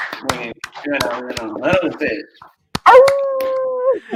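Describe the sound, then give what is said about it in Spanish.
Human voices mimic dogs: a quick run of choppy, yapping barks, a brief pause, then one long, steady howl held for about a second before it trails off. “La gente ahí tirando su guau guau, vamos carajo”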